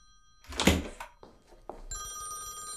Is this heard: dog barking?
no